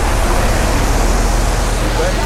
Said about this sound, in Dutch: Buiten komt een vrachtwagen voorbij, waarschijnlijk door de pont overgezet en op weg naar een bestemming elders